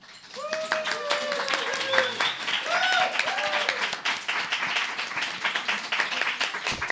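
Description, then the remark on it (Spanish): An audience at a show bursts into loud, sustained applause to welcome the next performer, dense clapping filling the whole stretch, with excited whoops and cheers rising over it near the start. “Un aplauso fuerte”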